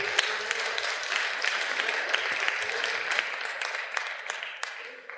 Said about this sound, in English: Please give everyone a round of applause there, folks.